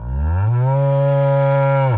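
A single long, loud cow moo, a steady low drawn-out bellow lasting about two seconds, with no talking.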